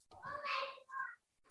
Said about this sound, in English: so that's why he's crying